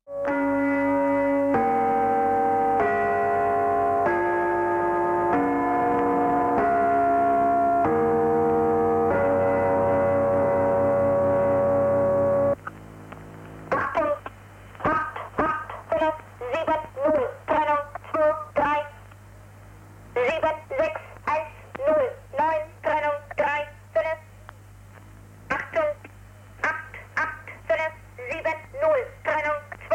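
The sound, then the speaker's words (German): A shortwave numbers station: a slow, tinny electronic tune of steady tones plays, then a flat, clipped voice reads out short bursts over a constant low radio hum. “Stellt euch einfach vor, dass ihr so in den 50er und 60er Jahren mit eurem alten Funkgerät aus Versehen die falsche Frequenz gewählt habt und dann Folgendes hört.”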